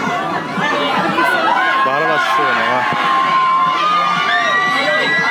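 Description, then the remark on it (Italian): A dense wash of many voices chattering and calling out at once from a crowd of about 800 people, many holding up smartphones trying to watch something, steady and loud throughout, with occasional higher shouts rising above the crowd noise. “Ci sono tipo 800 Ci sono un sacco smartphone. di persone col telefono attaccato che cercano di guardare qualcosa, credo.”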